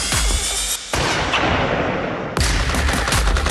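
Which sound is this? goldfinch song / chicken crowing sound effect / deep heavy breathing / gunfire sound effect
gunfire sound effect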